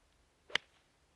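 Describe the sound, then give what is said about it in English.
A six iron swing on a golf ball teed up a little higher strikes the ground in one sharp, heavy-contact chunk, a brief dull thump flaring into a crisp crack, heard alone against a quiet background with no talking. “Oh, chunky tuna. And I called it shunk slap hook oh, left.”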